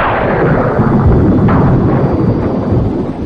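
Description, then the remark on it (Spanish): A heavy, sustained rumble of thunder rolls loudly and continuously, with deep low-end booms and crackling bursts layered through it, no voices present; a much-copied stock thunder sound effect used in films for storms and haunted houses. “y ha sido desde ese momento utilizado en al menos una película por año para ambientar tormentas, casas embrujadas, e incluso por su distorsión ha sido acelerado, frenado y modificado hasta el punto de convertirse en la deceleración del”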